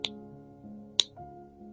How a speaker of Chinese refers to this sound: Judy 打响指